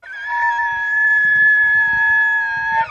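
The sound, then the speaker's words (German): A moose call: one long, loud, drawn-out wail held at a steady, surprisingly high pitch for nearly three seconds, then bending sharply downward at the very end. No one speaks. “Das ist ein Elchgeräusch.”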